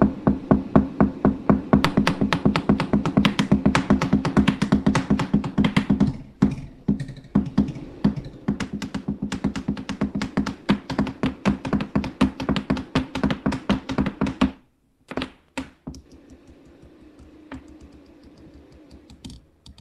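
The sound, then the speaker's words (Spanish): Three different drumsticks are used to beat out a fast, dense stream of sharp percussive strikes over a humming low tone, then break off abruptly; a few softer, scattered taps follow before it fades. No one speaks. “Está usando tres baquetas diferentes en este momento.”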